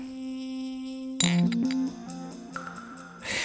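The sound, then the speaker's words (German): Glasses clink together in a toast, a bright ringing chime followed by a few lighter taps that linger, after a steady sustained tone in the background. “Prost, Tiny, Bruderherz.”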